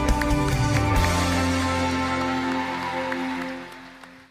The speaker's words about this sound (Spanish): Bienvenido a Comunidad Cristiana de México. Siéntete en casa. Somos tu familia. Recibamos con un fuerte aplauso la palabra de Dios.